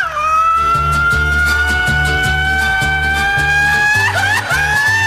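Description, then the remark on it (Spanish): A long, sustained mariachi-style grito, a loud high wailing cry that holds and slowly rises in pitch for several seconds, wavering near the end, over a steady band backing with bass and percussion. “Yo no di el grito, el grito lo dio otra persona.”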